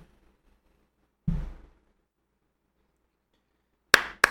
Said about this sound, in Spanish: Listo, sincronización de aplausos.